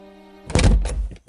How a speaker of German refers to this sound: und öffnet die Tür.